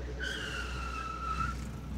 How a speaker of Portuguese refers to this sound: Ele consegue frear seu carro centímetros antes de atingir o corpo da mulher, que está ali, nua e ensanguentada à sua frente.